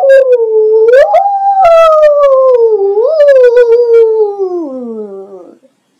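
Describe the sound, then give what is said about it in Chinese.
A person imitates a ghostly howl, voicing the bear brother in a children's story as he tries to scare his little sister: one long, loud, wavering 'oooo' that lifts slightly, wobbles, then slowly sinks in pitch before trailing off after about five seconds. “这时，小熊哥哥学了一声鬼叫，想到的小熊妹妹，呜。”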